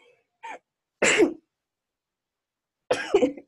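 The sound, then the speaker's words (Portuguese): Two sharp, noisy sneezes about two seconds apart, each a loud burst with a short breathy intake before it, separated by silence; no one speaks. “quando eu começo a espirrar, espirro várias vezes, mas acho que agora foi.”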